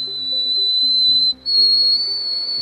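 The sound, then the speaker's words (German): An extremely high-pitched tone sung by a male singer, a former world record holder for high notes: a loud, piercing, steady note that cuts out briefly midway, then resumes slightly higher, with faint low tones underneath. “Hm, oder sagen wir lieber, sie können unheimlich hohe Töne hervorbringen und waren sogar schon einmal Weltrekordhalter in dieser Disziplin.”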